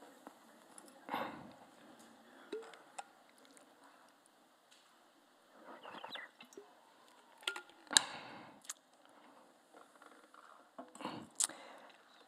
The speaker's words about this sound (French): Après, je prendre une petite gorgée d'eau pendant que vous réfléchissez à ça.